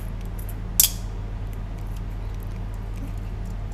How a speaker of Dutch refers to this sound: Nu die wat gaarder is, kan ik hem makkelijker knippen. Dus ik knip hem weer zijn lengte en dan heb ik blokjes.